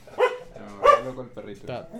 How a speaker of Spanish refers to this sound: Eh, se me volvió loco el perrito.